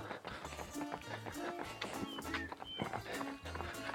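Quick, light running footsteps patter in a rapid, steady rhythm during a lively, easy jog with fast steps but a slow pace, continuing for several seconds with soft tonal music playing underneath.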